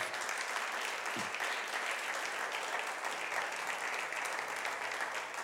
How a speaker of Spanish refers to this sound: Hoy vamos a darle un aplauso a la palabra de Dios.